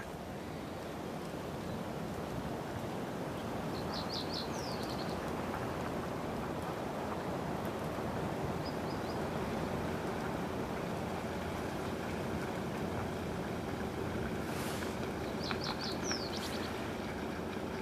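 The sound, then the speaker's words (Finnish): A male reed bunting sings in lakeside reeds, recorded by a birder: a few short, high chirping phrases, each a quick run of thin notes, spaced several seconds apart over a steady, rushing hiss of wind or water. “Joo, täällä kuullaan rytmejä tästä rantaruovikosta. Siellä on pajusirkku ja Tämä on just varmaan se sama koiras, joka jo aamulla meille hienon esityksen tarjoili.”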